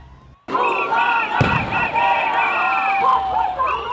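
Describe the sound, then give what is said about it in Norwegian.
A busy outdoor crowd in Brazil cheers and shouts, celebrating with fireworks as the former president is jailed for corruption in 2018; one sharp firework bang cracks out early on over the steady noise of the celebration. “feirer med fyrverkeri da den tidligere presidenten blir fengslet for korrupsjon i 2018.”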